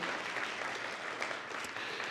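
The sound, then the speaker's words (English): A church group claps steadily together, a dense, continuous patter of many hands at an even moderate loudness from start to finish, with no voices standing out. “All right, we got some other clapping going on.”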